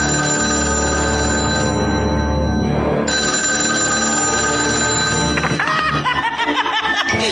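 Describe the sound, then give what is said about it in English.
A telephone bell rings loudly and continuously, a steady, shrill metallic ring filling the whole clip, with some chuckling-like sounds mixing in near the end. “Boy, did you get a wrong number. Leave your message at the sound of the shriek.”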